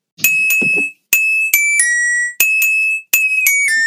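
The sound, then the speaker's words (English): A short, bright melody rung out on chimes: several clear, ringing notes struck in a steady sequence, each sustaining and decaying before the next, loud with no talking. “So, … by …”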